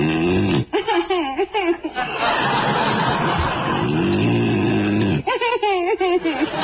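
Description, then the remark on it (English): A man snores loudly in his sleep, one long rasping, throaty snore between brief voiced grunts and mumbles, likely a performer imitating the sound. “you said you wouldn't snore.”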